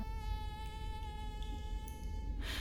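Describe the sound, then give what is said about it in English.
A mosquito's thin, high-pitched whine drones steadily indoors for a couple of seconds, then stops abruptly as a brief burst of noise cuts in at the end. “Ah, there, there's a mosquito in here.”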